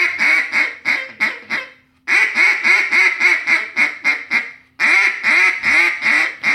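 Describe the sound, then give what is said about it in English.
Loud boss hen quacks blown on a duck call: three runs of rapid, raspy quacks, each separated by a short pause, with no voices. “You're going to do the boss hen on it first. Yep. There's the boss hen right here.”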